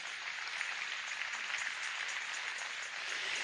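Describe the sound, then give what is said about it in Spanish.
A church audience applauds together to God during a Spanish-language sermon, a dense, steady wash of many hands clapping at once, bright and hissing, holding an even loudness for a few seconds with no voices over it. “Dele un aplauso a Dios.”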